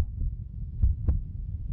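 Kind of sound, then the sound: sound effect, heartbeat sound effect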